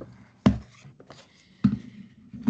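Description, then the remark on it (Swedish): A pen scratches across paper, writing on the back of a housing cooperative's annual report, with three sharper knocks as the tip presses down between quieter scribbling strokes. No one speaks. “Jag får skriva på, här har jag redan skrivit på.”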